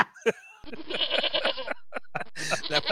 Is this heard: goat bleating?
yes